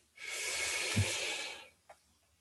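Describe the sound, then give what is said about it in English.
A single long, deep breath slowly drawn in by a person during a prayer, a steady airy rush lasting over a second, then a short soft puff as they breathe out. No talking. “It's amazing when we slow down our breathing and breathe in deep,”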